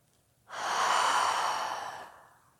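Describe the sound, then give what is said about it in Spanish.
A single long, deep breath pushed out through the mouth after a deep inhale through the nose, part of a guided breathing exercise: a soft airy whoosh lasting over a second and fading gently, clear with no talking. “De nuevo inhalas profundo por tu nariz. Y por tu boca sueltas.”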